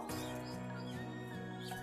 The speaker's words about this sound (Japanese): たくさんの鳥たちがこうして秋の